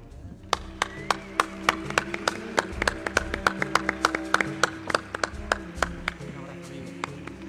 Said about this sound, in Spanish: Un aplauso.